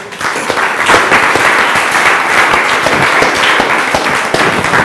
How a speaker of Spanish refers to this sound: Denle un aplauso a Dios.